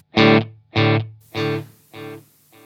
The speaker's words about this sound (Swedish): Ska se om vi kan faktiskt ta lite snabbare delay så man hinner. Ja, visst det är bättre står Wonken på klockan 12.